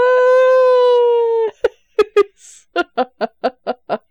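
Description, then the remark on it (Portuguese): A voice mimics a whale call: one long, steady, droning moan, then a quick run of about eight short, rhythmic yelps. Fairly loud, with no talking. “Não, mas ela fala baleiês, a língua oficial da baleia voadora.”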